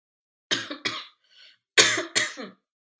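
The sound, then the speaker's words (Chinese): Four harsh, loud coughs from a person ill with a virus come in two quick pairs, each burst rough and breathy, with a short pause between the pairs and no talking. “没有，我在想，听众在听这一集的时候，听到你咳嗽会不会很紧张？”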